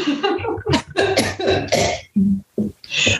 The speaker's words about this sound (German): So, da würde würd ich jetzt auch husten.